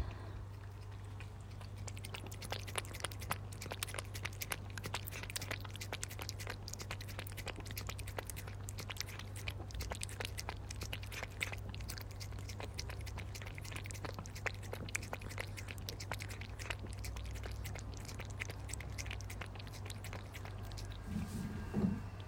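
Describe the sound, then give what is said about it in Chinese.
A pet cat named Xiao Jiafei eating canned food: a steady stream of quick, wet smacking and clicking chews, soft and irregular, continuing for the whole stretch over a low constant hum, with no talking. “好了，刚才就是啊，小加菲吃罐头的声音。”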